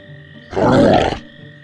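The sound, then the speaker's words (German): A deep, rough growl of a gigantic troll coming through a moor rises suddenly and rumbles loudly for about two thirds of a second before cutting off, with a low steady hum underneath and no talking. “Doch bevor du einen Moment der Ruhe findest, hörst du dir einen Grollen.”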